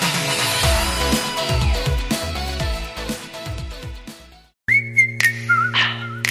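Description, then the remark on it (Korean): Dense pop music plays, then a short break cuts to a bright whistled melody over a steady bass beat, clear and upfront for the last couple of seconds. “위휘파람 소리 문제예요, 여러분.”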